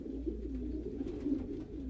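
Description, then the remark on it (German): A city pigeon coos steadily in low, throaty murmurs, a continuous rolling burble with a soft rumble underneath and no voices. “Stadttauben sind Vertreter des Maximalismus.”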